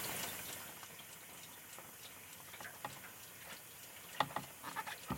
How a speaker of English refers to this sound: take out the plate and then just let it go sideways for a little while just so it drips off.